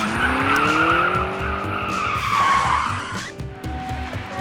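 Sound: taxi car driving off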